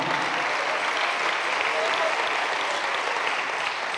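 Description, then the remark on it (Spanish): An audience applauding for the Lord: steady, dense clapping that holds at an even level throughout, a continuous bright wash of many hands with no break or voices standing out. “Eso, denle un aplauso al Señor, hermano.”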